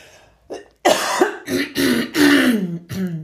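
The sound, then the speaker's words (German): A series of loud throat-clearing rasps and coughs from a person coughing after eating nuts, several harsh bursts in quick succession after a small initial clearing, with no talking. “ich habe das immer wieder, dass ich von Nüssen danach husten muss.”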